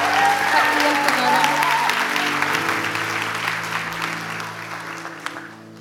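An audience gives a speaker a big round of applause as he steps down: a dense wash of many hands clapping that holds steady for several seconds, with soft organ-like tones humming underneath before it gradually tapers.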